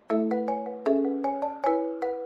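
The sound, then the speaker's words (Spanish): A marimba plays a short melodic phrase of about seven mallet-struck notes at an even, unhurried pace, each ringing warmly and overlapping the next, heard clearly and alone with no voices. “No, eso es una marimba.”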